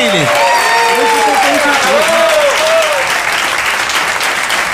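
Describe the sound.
Sustained audience applause for a performer at a live music session, a dense steady wash of clapping throughout, with voices calling out over it and a few sung or shouted tones rising and falling in the first three seconds.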